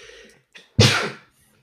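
A single loud sneeze bursts out after a brief quiet inhale, sharp and breathy, then fades quickly into silence.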